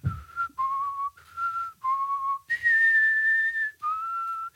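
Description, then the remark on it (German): A person whistles a short film soundtrack melody, a series of clear sustained notes stepping up and down in a steady phrase, with no talking. “Ganz oft auch der Soundtrack von Kevin allein zu Hause”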